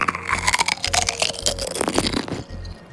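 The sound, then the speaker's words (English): Crisp, crackly crunching of a chip being chewed, a rapid run of dry snaps and scrapes with a steady low rhythmic thud beneath, no talking. “Closed his eyes as he chewed.”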